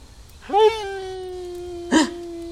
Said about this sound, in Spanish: ¿Escucharon el aullido?